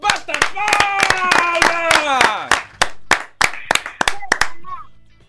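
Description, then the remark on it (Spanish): Loud, sharp hand claps in a steady rhythmic beat, like a group clapping in time as applause for a swimming team, with raised voices sounding over the first half before the claps continue alone. “esta batida de palmas es para todos ustedes.”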